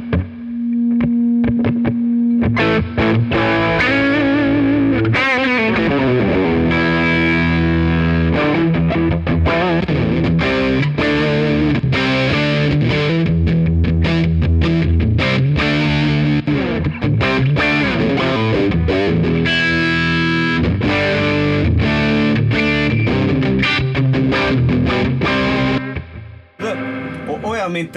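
An electric guitar played through an overdrive pedal, with a gritty, saturated tone. It opens on a sustained note, then moves into busy, continuous riffs and chords for nearly half a minute, loud.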